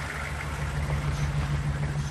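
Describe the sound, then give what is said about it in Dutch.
The engine of a fully loaded truck drones steadily as it drives through a sagging entrance gate after a long drive over Eastern European asphalt, its deep low rumble and rhythmic harmonic throb holding constant over a faint background hiss, with no voices present. “We reden in onze volgestouwde vrachtwagen door een scheefgezakte toegangspoort.”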